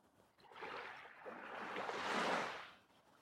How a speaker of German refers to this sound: Du siehst das Meer vor dir, wie es türkisblau glitzert. die Wellen, du hörst das Geräusch der Wellen